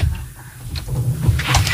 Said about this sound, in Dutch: Zit de deur dicht? Nu zit hij dicht.